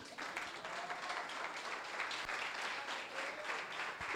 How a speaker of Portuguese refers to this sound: Você pode dar um aplauso para o senhor que ele é lindo?